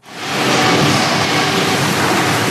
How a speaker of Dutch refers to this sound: Al jaren zelfs op volle toeren draait daar het ondergronds afvaltransportsysteem van het stadscentrum. door grote buizen komt het afval met een rotgang aan in gebouw, u hoorde hem net al, de stofzuiger.